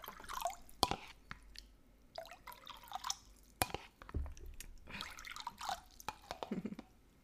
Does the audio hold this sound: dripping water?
yes